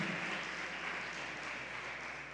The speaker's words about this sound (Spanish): ¿Puede darle palmas fuertemente al Señor?